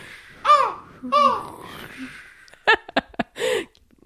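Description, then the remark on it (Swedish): A voice imitates a seagull with two high, wavering cries in quick succession, followed by a few short, sharp vocal bursts and clicks. “Du ska vara måsen!”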